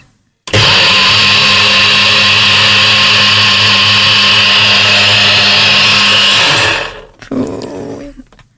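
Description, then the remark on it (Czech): A loud blender mixing a smoothie whirs steadily for about six seconds, a dense grinding roar, then cuts off abruptly, leaving a few quiet clatters and faint rustling at the end. “Bacha, dělá to hrozný hluk.”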